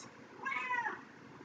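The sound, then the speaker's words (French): A black cat gives a single short meow that rises and falls over about half a second, clear, against a quiet background hiss with no talking. “il a fait miaou, il a dit ouais c'est bon”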